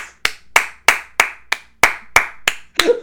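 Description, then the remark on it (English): A short round of applause: about nine sharp, crisp hand claps at a steady, even rhythm, like one person clapping alone, fairly loud with no talking. “Round of applause.”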